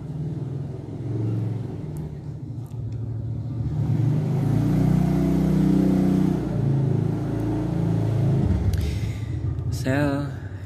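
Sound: passing motorcycle engine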